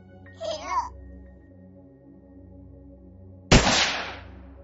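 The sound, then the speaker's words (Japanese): A single loud gunshot from someone holding a gun cracks out near the end and rings off in a short echoing tail, following a brief high-pitched voice earlier over a low steady background hum. “え何あれ銃声銃を持ってる人がし死んでるのか”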